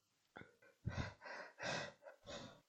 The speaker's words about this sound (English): I was like, I'm not sleeping. I'm just panting.